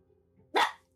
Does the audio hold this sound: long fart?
no